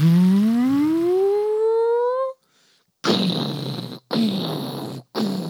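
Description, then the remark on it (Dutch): A voice imitates a charging-up sound, a steadily rising whine lasting about two seconds, followed after a short pause by three loud, harsh, buzzing bursts. No talking. “En die hoort enkel een oplading. Zo”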